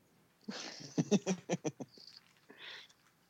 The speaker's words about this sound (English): I was closing the door. Oh shit! I got the squeaky.